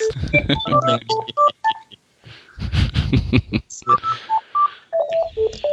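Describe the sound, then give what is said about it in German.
A telephone rings with an incoming call, sounding as quick runs of short electronic beeping tones, fairly loud, briefly broken by a burst of voices or laughter in the middle. “Ich krieg gerade ein Telefon an Das hören wir ja.”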